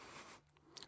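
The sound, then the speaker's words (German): Faint creaking and rustling in the background from a cantilever chair that someone sits on while recording: a brief stretch of grainy friction noise, then a few short, sharp squeaks and scrapes, with no one talking. “Und dann quietscht und knarrt das im Hintergrund so ein bisschen.”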